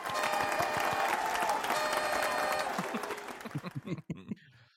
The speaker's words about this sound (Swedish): Det är ju faktiskt så att podden firar 30 ordinarie avsnitt. Det förtjänar ju en applåd och kanske en liten tuta.